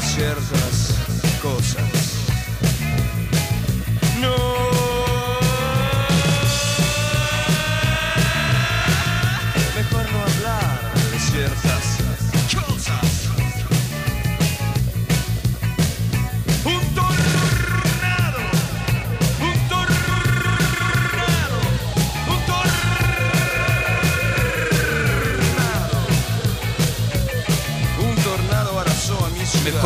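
A rock song plays steadily throughout, with a driving low-end beat and bending, sliding guitar lines rising above the dense band sound, at a constant, fairly loud level with no talking.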